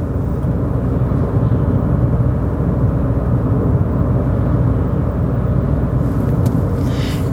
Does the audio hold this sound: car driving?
yes